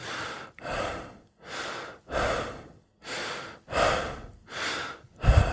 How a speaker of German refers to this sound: Atmen durch die Brust, atmen durch den Mund, atmen zu schnell. Also sie haben eine zu hohe Atemfrequenz pro Minute.